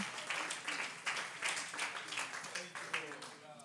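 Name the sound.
audience clapping hands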